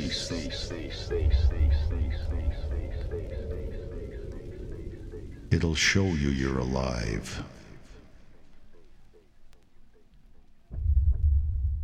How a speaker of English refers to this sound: Listen to the fat bass.